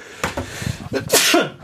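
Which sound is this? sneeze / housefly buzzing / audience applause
sneeze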